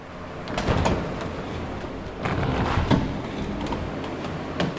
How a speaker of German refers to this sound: öffnet die luftdicht abschließende Tür zu einem der vielen Brutschränke, die links und rechts an einem langen Gang liegen.